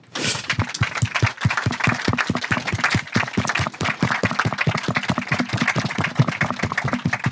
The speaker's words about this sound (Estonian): palun äh, üks suur aplaus esinejatele.